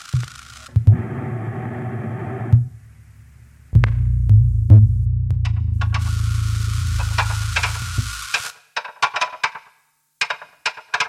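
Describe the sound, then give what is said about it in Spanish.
Electric tenor saxophone through pedals and delay in a 1998 electroacoustic piece by a German composer: low, buzzing sustained tones in long blocks, with a hissy high layer creeping in, then ending in choppy, stuttering bursts and clicks. “Estamos escuchando U tu equipo de transmisión, 1998, para saxofón tenor eléctrico y pedales, más delay, retraso,”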